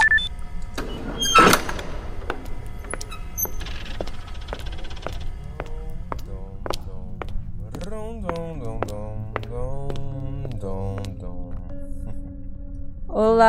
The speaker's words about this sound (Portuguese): Pode abrir a porta, Trax.